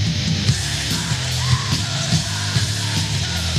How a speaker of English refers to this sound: but now I really feel like I'm listening to black metal.